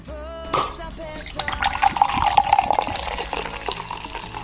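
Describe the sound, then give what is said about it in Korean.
A cola bottle cap pops open with a short hiss, followed by a steady pour of fizzy cola being served to a guest, bubbling and crackling for several seconds with no talking. “콜라, 콜라병을 따는 이 소리.”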